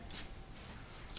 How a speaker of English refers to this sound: Doing this one on the move, getting ready for. Uh, you might hear some some rustling, uh, some you know in the in the background.